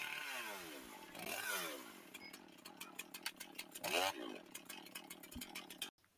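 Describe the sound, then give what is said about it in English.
A chainsaw engine revs up and down in loud bursts, with a rattling, crackling idle between surges before cutting off abruptly near the end. “He pulled out a chainsaw on me and threatened to kill me.”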